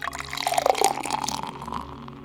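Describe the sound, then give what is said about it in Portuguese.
Water pours steadily into a drinking glass for about two seconds, a bright gurgling splash that rises in pitch slightly as it fills, then tapers off. “E neste exato momento, irmanados em pensamento com os amigos espirituais que nos acolhem e envolvem, recebamos nesse copo d'água”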